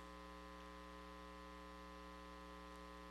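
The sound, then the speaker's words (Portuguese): A steady, low air conditioner hum with a soft whoosh of airflow, faint and unchanging throughout, with no voices or other sounds. “Estamos ouvindo o barulho do vento com o ar condicionado.”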